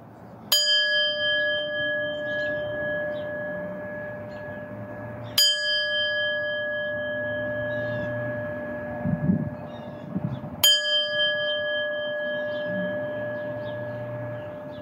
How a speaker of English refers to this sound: I'll ring the bell and lead us into our reading.